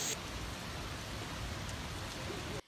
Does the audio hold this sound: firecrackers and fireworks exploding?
no